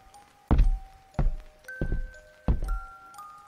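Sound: bedroom door opening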